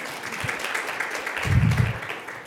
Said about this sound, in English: this past Thursday, we had our very first appointment ever at the Finding Hope Center. And so we've helped families through that. Yeah, you can clap for that.